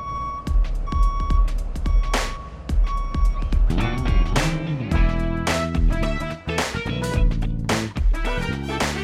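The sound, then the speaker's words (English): A dump truck's reversing alarm beeps steadily at a regular pace, loud, over a rumbling engine with bursts of clanking and hissing from heavy machinery. “dump truck.”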